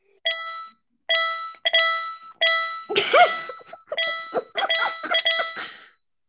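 A mobile phone notification chime sounds again and again as new notifications from Anker arrive, a bright ringing tone repeating about eight times in quick succession, the later chimes piling up and overlapping, with no talking.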